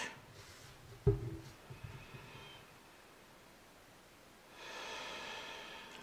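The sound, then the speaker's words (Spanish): Soft, slow breathing through the nose with eyes closed during a guided meditation, one of three deeper breaths: a long airy inhale and exhale against quiet background hiss, with a faint click partway through and no talking. “Y tomas tres respiraciones más profundas. Inspiras y exhalas por la nariz.”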